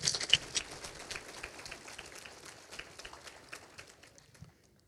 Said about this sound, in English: If you have prayed for, volunteered, or supported FOS in any way, please stand up. Let's give those people a round of applause.